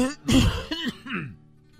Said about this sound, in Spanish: ¿Qué estoy tosiendo, querido hermano, como el brujo menor?